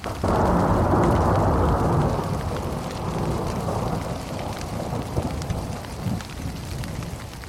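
An approaching thunderstorm rumbles with a heavy, sustained roll of thunder over steady rain, the low roar swelling at the start and then easing into a continuous wash of rainfall.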